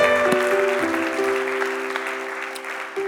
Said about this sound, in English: If you love Him, let me hear your hands this morning. What a great God we serve.